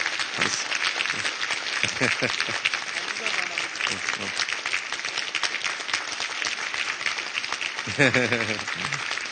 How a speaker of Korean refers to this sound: 그래서 우리 대장님을 위해서 자 박수 한 번 하겠습니다.